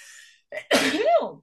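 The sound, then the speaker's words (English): A single loud sneeze: a short breathy intake, then a sharp explosive burst trailing into a voiced, wavering release, with no talking around it. “Bless you.”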